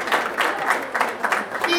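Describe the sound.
An audience applauds, a dense, steady wash of many hands clapping that holds at an even loudness for about two seconds, with a faint murmur of crowd voices mixed in.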